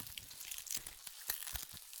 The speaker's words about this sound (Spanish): Está comenzando a llover en Medellín y hoy particularmente hay un exceso de ruidos alrededor del apartamento